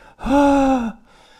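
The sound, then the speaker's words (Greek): A single sung head-voice note, held steady for under a second, with air escaping through vocal cords that are not closing fully, so it sounds breathy and airy. It is fairly loud, with no talking. “Και το μόνο που έχω να πω για το head είναι ότι οι φωνητικές χορδές πρέπει να κλειδώνουν σωστά, να κλείνουν καλά, ώστε να μην περνάει μεγάλη ποσότητα αέρα από μέσα τους και να μην ακούγεται έτσι.”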